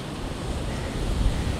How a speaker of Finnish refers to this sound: Että mennään tähän rannan puolelle pois tästä tieltä. Kyllä tää tuuli niinku liikuttelee kyllä jalankulkijaa aika tavalla.